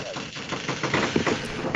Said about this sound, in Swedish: Nu hör jag bara en massa knak här. det är min stol som knakar. Jag ska tysta mig själv nu.